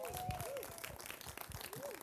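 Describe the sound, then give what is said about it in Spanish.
An audience claps steadily for about two seconds as a woman is invited up to share the message, a dense, fairly soft patter of hands, with a few rising-and-falling whistle-like tones and some voices mixed in. “y por favor dele un fuerte aplauso.”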